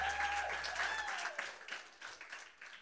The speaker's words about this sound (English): Thank you, Dan. Dan, you can put your guitar down. Let's give Dan a round of applause.